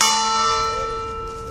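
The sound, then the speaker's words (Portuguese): A single strike of the bell of the nineteenth-century clock on the arch of Rua Augusta, which marks the hours and half hours: a bright metallic clang with long, steady overtones slowly fading away, no voices present. “O sino marca as horas e as meias horas, mas por baixo do sino está o mecanismo do pêndulo.”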